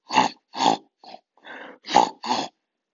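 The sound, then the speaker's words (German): A wild boar grunts, six short, rough bursts in an uneven rhythm, mostly loud with a couple of softer, breathier snorts between them. “Rufus beginnt laut zu grunzen. Und wenn Wildschweine grunzen, klingt das ungefähr so.”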